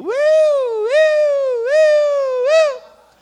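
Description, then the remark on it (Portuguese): A voice mimics an ambulance siren, a continuous wailing tone that rises and dips in four quick cycles over about three seconds, loud, then cuts off. “uma, uma ambulância.”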